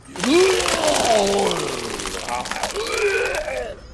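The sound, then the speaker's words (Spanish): A man retches and heaves loudly, vomiting onto the floor, his strained, gurgling groans rising and falling over a wet splashing spray, with a second heave following close behind. “Voltealo del lado por si se va a guacarear.”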